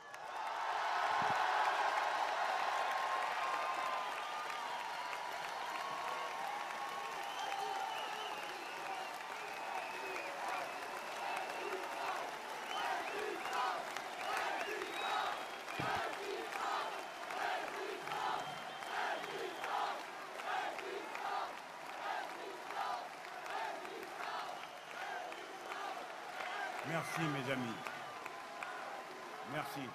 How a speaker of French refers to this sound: Non, non, non. Non, non, non. Nous sommes une assemblée, pas une foule. On ne crie pas mon nom.